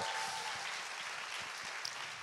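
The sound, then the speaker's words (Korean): Steady applause from an audience, a dense crackle of many hands clapping at an even level throughout, with no one speaking over it. “여러분 박수 한번 다시 한번 주세요.”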